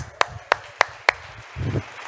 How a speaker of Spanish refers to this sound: Un aplauso